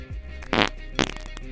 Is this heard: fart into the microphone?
yes